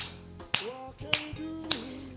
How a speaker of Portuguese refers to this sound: Tem a pista externa auditiva, que é quando na reabilitação ou vocês mesmos podem utilizar algum estímulo auditivo para marcar o tempo do passo. Então, pode ser o estalo dos dedos,